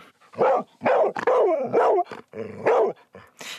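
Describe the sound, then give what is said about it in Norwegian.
A dog barks loudly in a quick, uneven series of about eight sharp barks, some yelping, with no one talking. “Nå skal vi over til eh, hundehold, for hvem tar med hunden ut på tur?”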